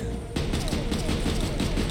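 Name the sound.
firecrackers popping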